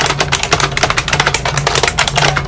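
Fast, loud typing on a clacky IBM Model M mechanical keyboard used with a PC, dense rapid keystrokes rattling without pause, with no voices present.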